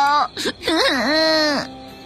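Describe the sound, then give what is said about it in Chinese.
A voice imitates a small child crying over his balloon that just burst: a short sob, then a long, wavering, high-pitched wail that rises and dips before breaking off, fairly loud and alone. “扭扭又哭起来：“ 我的气球，宝宝的气球。”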